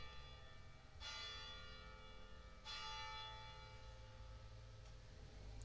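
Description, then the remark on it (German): A church bell across from a home strikes three slow quarter-hour strokes, each ringing out and lingering before the next, the last one fainter. No one speaks. “Da waren sie. Ich hoffe, man hat sie gehört, die drei Schläge.”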